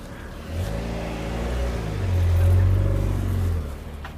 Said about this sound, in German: Ich bin bei der Kreuzung, ich muss, darf jetzt kurz nicht schauen, weil mein Leben ist mir wichtig. Jetzt kommt von links wahrscheinlich noch ein Auto. Hatte ich recht? Ja.